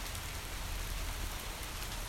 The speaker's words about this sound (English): We're here just at home again, enjoying the spring. Some showers, May showers.